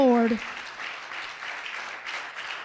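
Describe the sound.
A voice briefly trails off as a large crowd breaks into dense, steady applause, many hands clapping together in a sustained wash that swells slightly before continuing.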